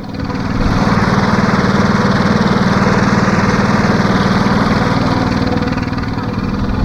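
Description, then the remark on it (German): A tractor engine runs steadily and loudly, a continuous low chugging rumble with rapid regular pulses and no voices. The tractor pulls a train of wagons carrying many children on a round trip, driving along Schönfelder Straße and up a hill. “Wir machen jetzt eine Rundfahrt für euch mit dem Traktor. Und der klingt so.”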